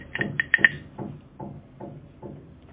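Repair work noise from next door: a steady series of about eight knocks or bangs at an even pace, the first few sharp and ringing, the rest duller and quieter. No one speaks.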